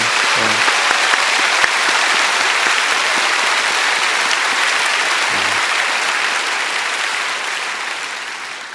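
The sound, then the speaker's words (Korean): A crowd applauds steadily for several seconds, a dense, even wash of many hands clapping that holds strong before gradually tapering toward the end. A couple of brief low murmurs surface beneath it. “보이지 않는 곳에서 일하시는 또 지금 방송국에도 있는 우리 이분들을 위해서도 뜨거운 사랑의 박수를 한번 했으면 좋겠어요.”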